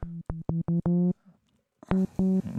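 A Moog synthesizer is played in a deep house style: a run of short, punchy low notes in a quick staccato rhythm, a brief pause, then a brighter, buzzier tone, clear with no voices.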